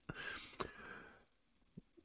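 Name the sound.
yawn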